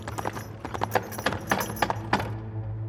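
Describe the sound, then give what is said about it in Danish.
Steady clip-clop of horse hooves on a hard road, brisk and even, with a low rolling rumble underneath like the wheels of a horse-drawn wagon, moderately loud. “Fanget i en hestevogn, der fragtede dem til toppen af bakken for at møde deres straf.”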